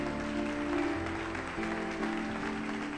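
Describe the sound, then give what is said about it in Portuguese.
An audience applauds in a steady, dense wash of clapping that holds at an even level for about three seconds, with a faint sustained tone running underneath. “Pode aplaudir você começou aí.”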